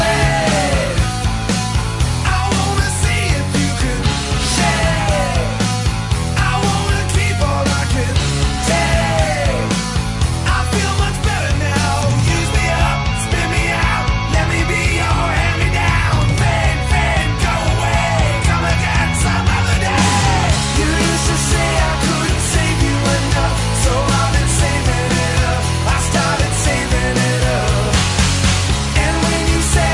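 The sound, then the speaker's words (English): A loud, dense rock song plays steadily for the whole stretch, with three electric guitars, each played in a different way, layered over driving bass and drums and no talking over it. “You can actually hear all three of those guys in this song, what they bring to the table, and, and the different ways that they play.”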